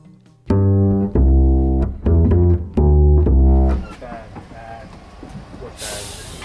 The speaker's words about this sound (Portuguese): oferecem-te, ao ouvido, uma viagem pelo elétrico portuense.